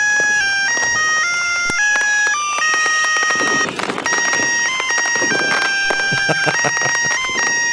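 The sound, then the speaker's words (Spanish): A loud, shrill electronic melody from Christmas tree lights, with bright beeping tones stepping up and down in a steady tune, playing continuously with no one talking. “Bueno, y al fondo, como suena bastante fuerte y estridente el sonidito este, eh, lo van a escuchar hasta los vecinos y van a decir, ya pusieron el árbol los vecinos.”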